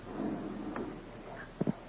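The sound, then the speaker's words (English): A drawer is handled against quiet room noise: a faint scrape, then two quick knocks as a pack of playing cards is pulled out. Nobody speaks. “In the drawers. I don't want to touch them. Take them out yourself, if you will.”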